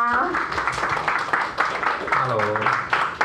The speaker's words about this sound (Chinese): 我们以热烈的掌声欢迎